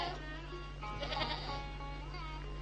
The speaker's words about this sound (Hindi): माँ तूने चितकबरी बकरियों के नन्हे मेमने देखे ये कैसे मिमियाते हैं